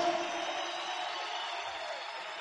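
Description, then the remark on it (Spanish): Sustained, dense applause from an enthusiastic crowd in a hall, a steady wash of clapping that stays loud and even throughout without pauses or a clear voice on top. “De un aplauso, pero fuerte, fuerte, fuerte el que está entusiasmado.”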